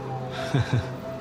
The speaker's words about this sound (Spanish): Resoplas una tercera ocasión.